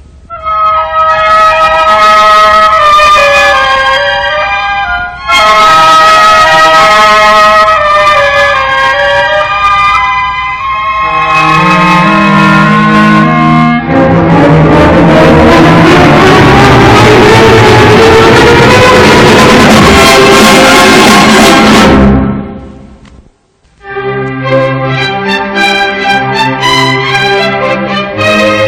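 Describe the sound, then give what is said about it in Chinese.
Loud orchestral music from Prokofiev's symphonic fairy tale Peter and the Wolf, depicting the duck quacking inside the wolf's belly: sustained wailing tones swell into a dense climax, break off briefly, then a reedy woodwind tune returns over soft accompaniment. “现在，如果留心听的话，还可以听到可怜的鸭子在大灰狼的肚子里嘎嘎的叫声，因为当时狼吃得太急，把鸭子活着吞到肚子里去了。”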